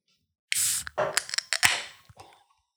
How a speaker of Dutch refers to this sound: ik ga vast open kijken hoe dat lekkere blik klinkt.